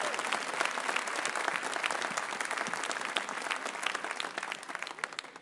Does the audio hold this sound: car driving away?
no